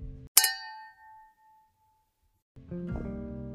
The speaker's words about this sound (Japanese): はいじゃあ乾杯からしたいと思います。乾杯乾杯。